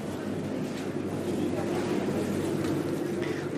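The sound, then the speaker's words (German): A garbage collection boat in a city in Italy drones steadily, a continuous low engine rumble with a mechanical hum and some clattering texture that holds even throughout. “Typisches Geräusch.”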